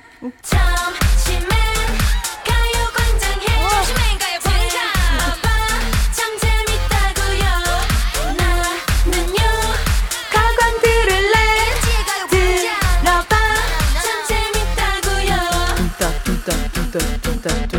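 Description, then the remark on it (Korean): A bright, upbeat pop logo jingle for the radio show Lee Eun-ji's Gayo Gwangjang, sung by a group, plays loud and alone, with punchy rhythmic beats, layered melodic vocals and synths, lasting nearly eighteen seconds without any talking over it. “우리 로고송 음, …가 부른 우리 가요광장 의 로고송 들려주세요.”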